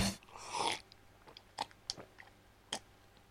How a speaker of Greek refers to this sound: Πίνω λίγο νερό.